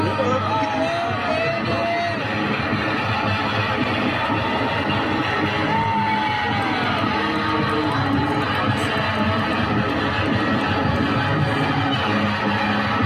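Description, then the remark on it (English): A loud, saturated live concert recording with distorted guitar, the sound dense and constant for the whole stretch while a crowd whoops and yells throughout. “All right, I won't play the whole clip, but I had to get some of the distortion in as well.”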